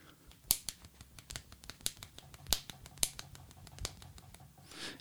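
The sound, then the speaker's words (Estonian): A rapid, irregular series of sharp popping clicks made with the mouth, fairly loud, with no talking, ending in a brief breathy hiss. “nimetissõrme lõdvaks, nii et see langeks täpselt pöidla ja fucking näpu vahelisse prakku, tekitades seal õhu äh, plaksu, plaksu õhuga.”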